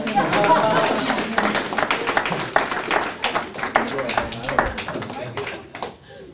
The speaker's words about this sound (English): We can get a clap though. That'd be nice.